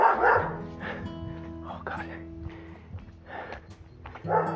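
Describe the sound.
A dog from La Casita barks repeatedly in short, sharp bursts in the early morning, with a few higher yips mixed in, while low background hum and faint voices sit underneath.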